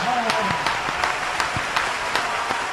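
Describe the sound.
A crowd applauds steadily for a speaker being introduced, a dense wash of many hands clapping with sharper individual claps popping out, and a faint voice briefly rising over the start.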